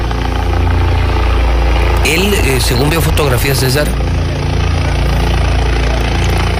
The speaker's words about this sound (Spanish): mira, ahí está, ahí está el momento. Ahí va aterrizando el helicóptero.